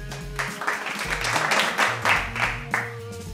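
A crowd applauds in a steady wash of clapping that swells in a few uneven surges, with low sustained musical tones running underneath.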